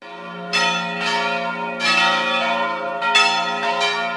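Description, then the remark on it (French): Four large church bells, rung together by a bell-ringer, sound in overlapping peals, their strikes arriving in irregular clusters over a sustained, shimmering hum of lingering tones, loud with no voices. “Et ces fameuses demoiselles, eh ben, il les fait exceptionnellement danser à l'unisson, rien que pour vous.”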